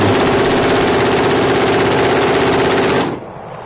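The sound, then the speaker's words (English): A loud, continuous burst of rapid automatic gunfire, the shots blurring into a steady mechanical rattle for about three seconds before cutting off abruptly into quiet. “Uh oh. Guns jammed.”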